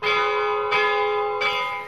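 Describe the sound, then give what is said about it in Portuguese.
A large donated bell, to be placed at the door of the Cura, space of the Associação A Música Portuguesa a Gostar Dela Própria in Serpins, Lousã, rings out loud, struck three times at an even pace, each clang blooming into a rich metallic hum that overlaps the next. No voices are present. “O vasto programa cultural vai terminar com a colocação de um sino que foi doado vai ser colocado à porta da Cura, espaço da Associação A Música Portuguesa a Gostar dela própria.”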